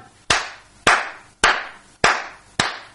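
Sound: applause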